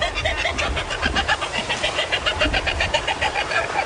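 A dense chorus of birds calling over one another in Dronning Maud Land, Antarctica, with many short, repeated chattering notes at mid to high pitch and a low rumbling wind-like noise underneath, steady and fairly loud throughout.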